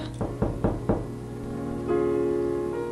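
household object, knocking on a door

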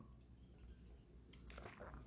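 food or drink, sipping hot coffee

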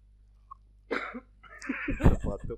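human body sound, coughing

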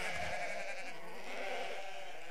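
animal, sheep bleating

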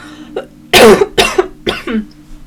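human body sound, cough

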